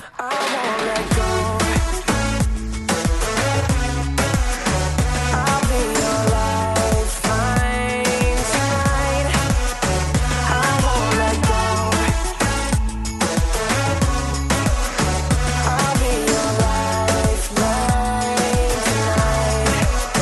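A loud, steady dance track with a deep house groove: thumping four-on-the-floor bass pulses, bright layered synths and a continuous full mix playing throughout without any talking.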